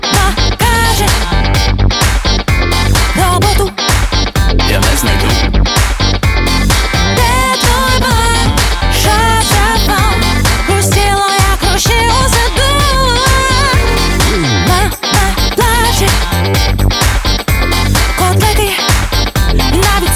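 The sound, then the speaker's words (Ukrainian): A guest band's own track plays loud and steady for the whole stretch, with a driving beat and melodic lines weaving over dense instrumentation, and no talking over it. “Друзі, я пропоную зараз для ознайомлення послухати один з ваших треків і потім повернутися про продовжити розмову.”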